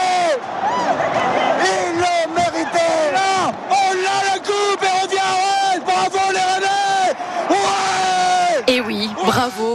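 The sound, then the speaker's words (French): A big crowd of Rennes supporters cheers and sings in celebration of a Coupe de France win over PSG on penalties, 6 to 5, loud overlapping voices rising into sustained chant-like shouts that carry on steadily for about ten seconds with brief dips between bursts. “Une explosion de joie hier Énorme eh Ils l'ont mérité”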